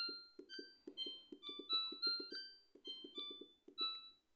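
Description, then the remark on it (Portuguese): A refrigerator control panel in a kitchen beeps through a rising and falling scale of electronic tones as its settings are changed. Each short beep is paired with a soft tap of a button press, in a quick, uneven sequence. “Pô, eu descobri que a minha geladeira faz um barulho muito legal quando muda as opções aqui do negócio.”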